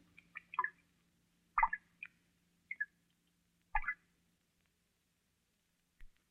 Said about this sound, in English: Here is some water dropping into a small tank as its sound is picked up by an ordinary studio microphone.